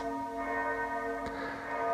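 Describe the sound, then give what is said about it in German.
A church bell rings with a sustained, resonant tone rich in overtones, a second strike blooming midway and the hum lingering steadily throughout, clear with no voices. “Der Klang der Glocke stößt einen Gedanken an.”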